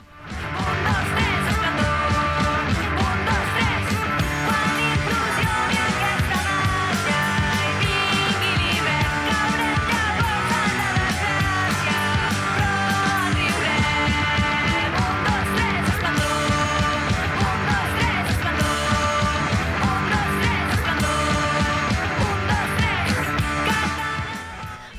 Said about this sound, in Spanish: mujeres gritando, eso siempre nos gusta.